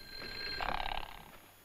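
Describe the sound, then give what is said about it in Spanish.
A telephone rings in a single short, bright burst of trilling, ringing tone, clear, over a faint steady hum with no talking. “Contesten este teléfono, que no ven que estoy ocupada.”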